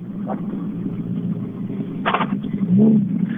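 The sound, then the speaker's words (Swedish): A rally car engine accelerates with a steady, gritty low rumble, broken by brief rattling bursts, then a rising growl swells near the end as the revs climb. “Vi ökar.”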